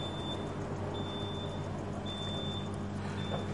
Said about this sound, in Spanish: Empezamos a tirar el winch. Entonces, empezamos a recoger.